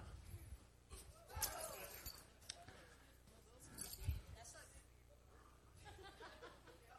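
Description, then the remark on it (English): A heavy wad of keys is thrown over and lands with a bright metallic jangle, then clinks again a few seconds later, amid murmuring voices. “There's a big wad of keys. Thank you, Dale. Throw them over here.”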